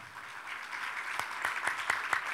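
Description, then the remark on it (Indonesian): An audience at a church service claps steadily for the Lord Jesus, a dense wash of applause with a few sharper, louder claps standing out toward the end; no one speaks. “Baik, kita berikan tepuk tangan bagi Tuhan Yesus.”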